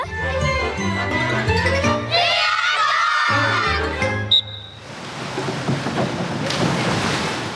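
After a short burst of tonal music, a sharp splash into water rings out, followed by a steady wash of churning pool water and faint children's voices.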